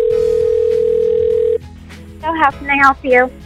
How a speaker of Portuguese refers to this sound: O som começa com o telefone a tocar.